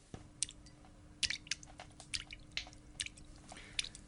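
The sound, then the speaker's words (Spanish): Water drops fall into liquid in a dining room, in a quick, irregular series of soft, bright plinks and splats, about a dozen in all, faint against a low steady hum, with no voices. “Era el sonido de unas gotas que caían sobre un líquido.”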